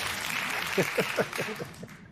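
A burst of crowd applause, dense and steady throughout, with a few voices rising above the clapping near the middle before it begins to fade at the end.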